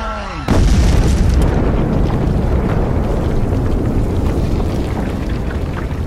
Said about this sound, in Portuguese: vocês percebem o bicho implodindo de dentro para fora. Então aí não é implodindo, né? Ele tá explodindo.